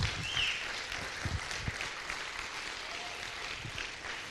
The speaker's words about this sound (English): Can we give Him a great round of applause today?